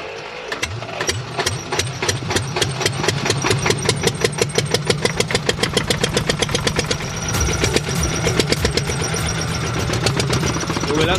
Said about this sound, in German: wir drehen jetzt mal den Motor an